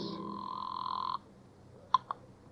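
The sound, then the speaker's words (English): A single sustained telephone ring for a phone call to the home office, steady and fairly loud for about a second, then stops; two short sharp clicks follow shortly after, like a receiver being lifted. “Phone call to the home office.”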